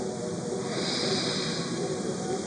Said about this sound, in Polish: obserwuj ten swój oddech. No i oddychaj. Wdech